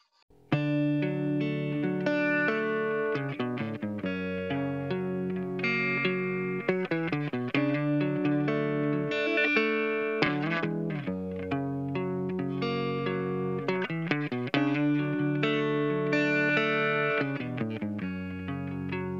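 A rock song with a clean, chorus-tinged electric guitar playing melodic chords and runs, steady and fairly loud throughout with no voices.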